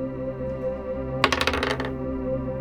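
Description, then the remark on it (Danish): Dice clatter and tumble across a hard surface in a quick burst of bright clicks lasting under a second, over a steady low hum, rolled for a nature check in a game. “Rul et uh, nature check.”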